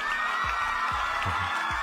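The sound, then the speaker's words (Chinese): A short burst of canned applause and cheering: a steady, dense wash of clapping and crowd noise, with a few low swooping tones underneath, and no speech. “这句话，哎呀，不行了，我觉得是要掌声来了。”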